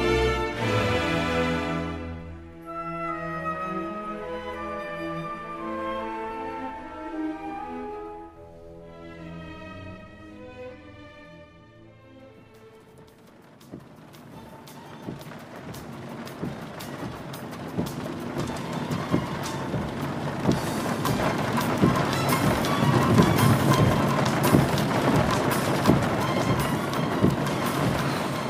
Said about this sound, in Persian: وای چه بارون بی کلافه شدم به خدا آروم باش عزیز من بارونه دیگه